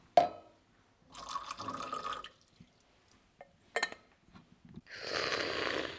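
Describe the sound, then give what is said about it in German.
Water is poured from a water bottle and sloshed in short bursts to mix herbs into a potion, with a few splashy drips between them, then a steadier rushing pour at the end. Fairly quiet, with no talking. “Wir können die Kräuter zu einem Trank mischen. Hier hast du meine Wasserflasche.”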